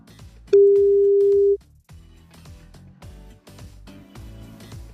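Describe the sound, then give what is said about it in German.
A single loud, steady telephone ringing tone of an outgoing call, placed by pressing Call on the phone display, sounds for about a second, then stops while quieter background sounds continue. “Hab das Telefondisplay schon freigekratzt und drücke auf Call und los geht's. Erste Leitung ist offen.”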